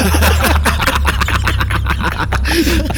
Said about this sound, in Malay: ada kereta sekarang bunyi dengan pipe dia Dari tadi senyap sekarang dia tiba bising pula